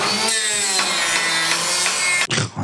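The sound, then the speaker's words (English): Loud construction noise: a saw grinds through material with a harsh, steady buzz and repeated strokes for a couple of seconds, then briefly cuts off before resuming. “You know, you're in there's construction.”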